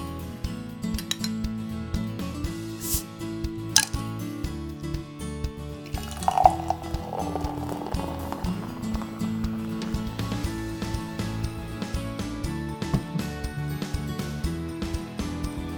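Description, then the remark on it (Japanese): The cap of a commemorative beer, the third and last of three made in 2021, is opened with a couple of sharp clicks, then the beer is poured into a glass with a fizzy, gurgling splash that fades, all under steady background music. “それではね飲んだ感想をお伝えしますじゃあ線を開けますね”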